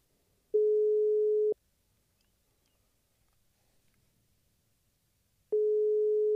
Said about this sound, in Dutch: We gaan hem even bellen.